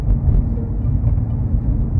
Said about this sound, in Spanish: Nuevamente estoy grabando desde el auto.